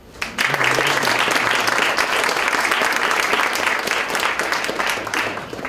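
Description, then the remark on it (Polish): An audience applauds the author team of the book Zagadki Wzrostu Gospodarczego steadily for several seconds, a dense, sustained patter of many hands clapping at even loudness before tapering slightly at the end. No one speaks over it. “Powiem szczerze, przydałoby się chociaż minimalne brawa, Szanowni Państwo.”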